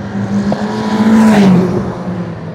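A racing car engine whines past at high revs, its pitch rising then dropping as it sweeps by, loud with a steady mechanical roar and no voices, as a driver tries to race the other cars on the track.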